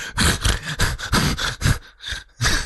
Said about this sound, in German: Das ist das Geräusch, das die Spitzhacke in seinem Scheißebeet gerade macht. Äh, das müsst ihr euch nicht wundern.